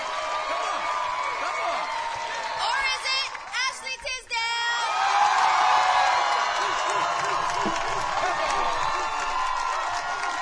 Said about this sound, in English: That wasn't even a very good applause. Neither one of them were good. No. But we got a chant going, so.